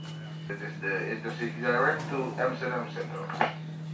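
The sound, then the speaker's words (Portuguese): A train's onboard announcement naming Amsterdam Central plays over the speaker system as the train departs from a platform beneath the airport. One steady voice speaks at moderate volume, with a constant electrical hum running underneath throughout. “E aí a gente ouviu aqui Amsterdam Central, a gente está saindo, apesar de ser um trem, a plataforma que ele sai aqui fica logo abaixo do aeroporto, no saguão de embarque mesmo, você desce uma esteira rolante, você já cai na plataforma.”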